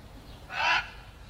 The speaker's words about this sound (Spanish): Hasta el cuervo. Enronquece su graznido para anunciar la fatal entrada de Duncan en este castillo.